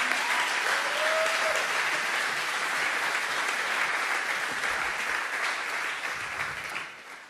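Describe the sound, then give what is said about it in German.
Sustained audience applause welcoming a guest, a dense steady clatter of many hands clapping that holds strong for several seconds before easing off near the end, with a brief faint whistle early on. “Lass uns ihm einen richtig großen Applaus geben.”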